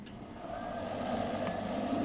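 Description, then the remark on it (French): A blender runs steadily, blending hot soup and breaking up its lumps, with a continuous whirring motor drone and churning liquid, holding an even pitch and growing slightly louder over two seconds, with no one talking. “Et hop, on va voir que là on peut, on peut même entendre que vraiment ça tourne et que là ça casse tous les grumeaux.”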